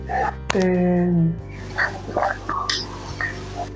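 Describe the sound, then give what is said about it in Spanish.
A non-verbal autistic child lets out a loud, sustained happy shout lasting about a second, followed by quieter scattered vocal sounds and a steady low background hum. “Eh, si los escuchas ahí gritar es que están felices.”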